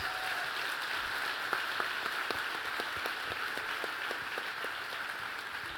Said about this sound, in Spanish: primero que todo, antes de que comencemos, yo quiero darle las gracias a todos los que participaron del Fall Festival. Desen un fuerte aplauso a ustedes.